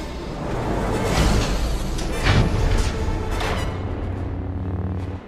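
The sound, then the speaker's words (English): Heavy blast doors slam shut to seal off a ship's bridge, with a series of loud metallic impacts spread over a few seconds, set against a dense, continuous roaring rumble. “Close the blast doors!”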